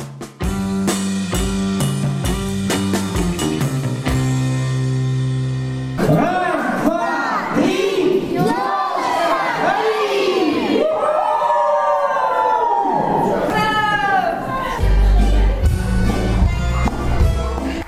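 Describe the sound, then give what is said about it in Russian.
Loud music with a steady beat plays for several seconds at a Christmas party for adults and children at a Russian-language school for emigrants from the Baltic states, then a dense crowd of overlapping voices and excited shouts rises, with the music continuing underneath. “Музыка громко играет на празднике.”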